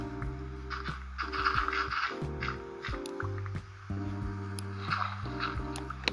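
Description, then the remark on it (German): Short, crunchy video game gravel block sounds, a dozen or so placed and broken in quick, irregular succession over steady sustained background music, with no one talking, as gravel is placed and mined, some of it placed into water. “Und dann geht's auch schon weiter mit dem Platzieren und Abbauen. Äh, nein, ich will das Kies nicht ins Wasser fallen lassen.”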